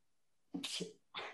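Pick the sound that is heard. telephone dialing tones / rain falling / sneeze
sneeze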